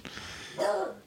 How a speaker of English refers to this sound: That's my dog, by the way, everyone.